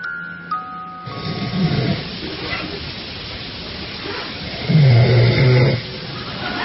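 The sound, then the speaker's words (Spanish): Loud, guttural human snoring, two heavy rasping snores a few seconds apart, the second louder and rumbling like a growl, with faint breathing noise between them. “esto dicen todas las personas roncadoras la confirmación de que roncan es que ellos lo niegan.”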